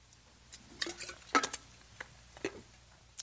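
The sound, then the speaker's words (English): Someone taking a sip of water: a quiet run of light clinks and handling noises, with one brief ringing tap near the middle and a few soft knocks after, no talking. “Um, sorry, let me grab a sip of water.”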